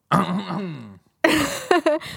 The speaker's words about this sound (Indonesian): batu batuk mulu udah minum juga